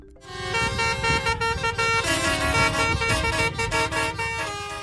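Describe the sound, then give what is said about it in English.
Many vehicle horns blare together in a loud, sustained chorus, overlapping tones held continuously with a low engine rumble underneath, at a blockade of a major highway in France by farmers with tractors. “Farmers in France blocking major highways with tractors, and there are warnings Paris could run out of food if the blockade goes on.”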